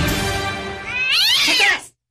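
A single drawn-out cat meow, fairly loud, rising into a strained, wavering cry before cutting off abruptly, with no talking.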